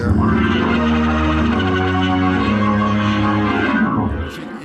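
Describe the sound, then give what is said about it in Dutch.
Hammond organ playing loud, dense sustained chords with a gritty, wild edge, holding steady for several seconds before cutting off near the end. “je kan zeg maar, met een Hammond kan je, wat ik nu deed, dus je kan heel, heel klein en heel teder spelen.”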